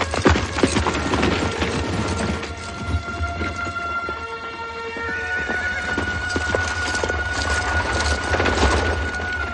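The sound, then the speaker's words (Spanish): A carriage drawn by four Norman horses rolls through the French countryside to a solitary abbey, hooves clip-clopping in a steady rhythm, a horse whinnying partway through over a constant rumbling background, with no voices. “La carroza tirada por los cuatro caballos normandos llega hasta una solitaria abadía de la campiña francesa.”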